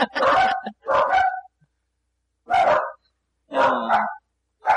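A dog barks in bursts, two quick barks, a pause, then two or three more, loud and sharp with silence between them.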